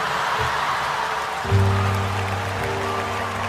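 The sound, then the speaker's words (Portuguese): Steady applause from the crowd at the Juntos por Todos solidarity concert for the victims of the Petrógão Grande fire fills the whole stretch at moderate volume, a dense crackling wash of many hands, with a low droning hum joining in about halfway through. “Eu sinto que posso fazer qualquer coisa que vocês aplaudem.”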